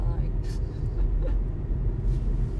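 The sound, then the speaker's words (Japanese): A steady, fairly loud low rumble of a car engine heard from inside the vehicle, droning continuously throughout, with faint murmuring voices in the background. “ちょっとこの車のエンジンの音ってどう入ってんだろうね結構うるさかったりしてそうね”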